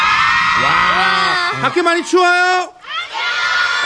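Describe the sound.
A crowd of fans outside cheers and shouts in a loud, continuous roar of high-pitched voices. A person speaks over the din, and the noise dips briefly near the end.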